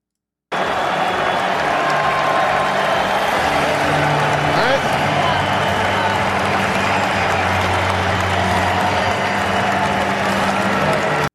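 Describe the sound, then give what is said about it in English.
A large crowd roars continuously, low sustained boos gradually easing as scattered cheering rises through the dense, steady wall of noise, as the crowd sees a woman shown on the screen. “But once they see her on the screen, some of the people in the crowd started like, yo, the boos kind of subside, and then you start hearing some slight cheers.”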